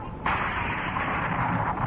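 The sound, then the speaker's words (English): A sudden, sharp thunder clap bursts in after a low background rumble, then holds as a loud, steady roar of crackling noise until the end. “No, no, no. It's thunder.”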